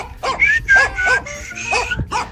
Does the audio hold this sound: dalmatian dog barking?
yes